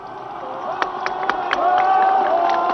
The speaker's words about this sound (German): Nun geht die rote Fahne runter. Die Demonstranten klatschen, sie schwenken ihre Hüte. Sie rufen, wir grüßen das freie Berlin drin!